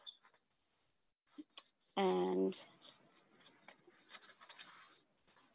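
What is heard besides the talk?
paper being unfolded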